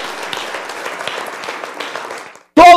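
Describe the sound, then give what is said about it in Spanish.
An audience applauds the Lord in a dense, steady wash of clapping for over two seconds, then the applause cuts off and a loud voice begins speaking. “Denle un aplauso al Señor, Él se lo merece.”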